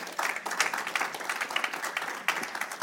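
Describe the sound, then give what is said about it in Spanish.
A crowd breaks into sustained applause for the Lord, dense overlapping claps filling the space at a steady, moderately loud level for a few seconds, with no clear speech over it. “Amén, hermano, un aplauso al Señor.”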